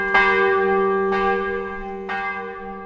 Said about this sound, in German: Während die Glocken der beiden Kirchen, der katholischen und der evangelischen, bimmeln, läuft dem frühen Esser das Wasser im Mund zusammen.